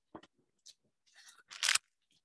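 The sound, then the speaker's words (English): A bottle is pulled out and handled: a few sharp clicks and taps, then crinkly, plastic-sounding rustling that builds into a louder crunchy scrape before stopping. “Let me just get that bottle out real quick.”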